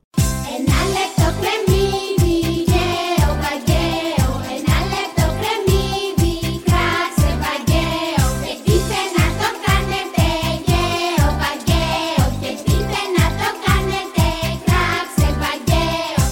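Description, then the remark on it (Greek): A bouncy Greek children's song plays loud, with a steady thumping beat, bright layered instruments and a sung melody about marrying off a girl to various suitors, running continuously throughout. “Λοιπόν, στο συγκεκριμένο άσμα παντρεύουν τη μέρη με διάφορου τύπου.”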